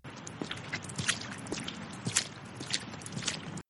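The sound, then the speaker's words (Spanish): Steady footsteps of a person walking laps around a concrete slab, each step a crisp, gritty scuff repeating about twice a second, moderately quiet, with no voices. “Da otra vuelta más a la plancha de concreto.”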